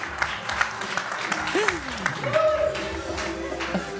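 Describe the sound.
A crowd breaks into sustained, loud applause, a dense steady patter of many hands clapping for the full four seconds, with voices calling out and cheering over it.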